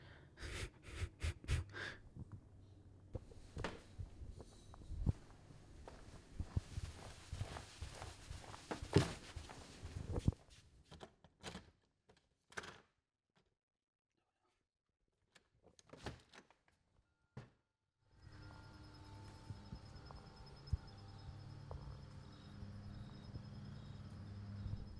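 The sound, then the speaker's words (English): A dog snorts and breathes heavily, in quick irregular bursts of sniffs and snuffles, then falls mostly quiet before a steady background hum sets in with a few faint breaths. “It's a dog.”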